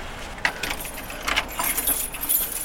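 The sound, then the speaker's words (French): Keys jangle in a series of bright metallic clinks and rattles, several quick bursts over a few seconds, as a retired man unlocks the door of the Saint-Savinien church, with no one speaking. “C'est vous qui ouvrez Oui.”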